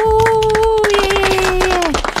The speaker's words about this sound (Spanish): Vamos, vamos, a aplaudir al personal de salud. Eh, sí, aplausos.